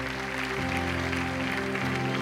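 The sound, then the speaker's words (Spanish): Steady applause from an audience, a dense, continuous patter of many hands clapping throughout, over sustained low musical chords that shift pitch a couple of times. “Vamos a honrar con un aplauso a ese dolor.”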